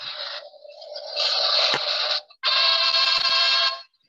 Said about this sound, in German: Ich habe sogar eine Soundmaschine. War das, war das ein Tusch? ja, hat man nicht so gut gehört, ne?